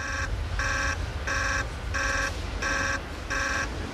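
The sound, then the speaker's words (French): A control room alarm, set off by a lack of water, blares in a steady pulsing pattern, six evenly spaced harmonic tones repeating over a low rumbling background hum, loud with no voices. “Le manque d'eau continue de déclencher l'alarme, mais aucun des ingénieurs ne pense qu'un accident grave puisse se produire.”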